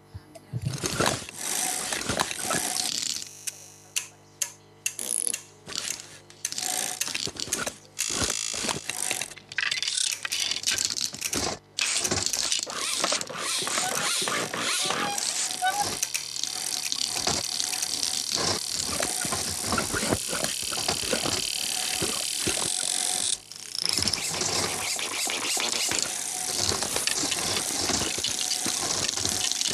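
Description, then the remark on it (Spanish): Bicycle repair shop work sounds: rapid metallic clinks and taps of tools and parts, with a steady rushing hiss like escaping air or running water, busy throughout. “quien no se haya identificado con una bicicletería es porque nunca tuvo parchando una goma en una de ellas.”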